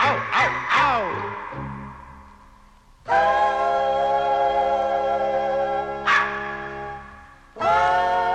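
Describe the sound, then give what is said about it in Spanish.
A few quick, yelping dog barks at the start, followed by long, drawn-out tonal howls that swell and hold steady, fairly loud, with no talking. “se rieron los perritos de tal facilidad y todos ellos deletrearon ¡Au, au!”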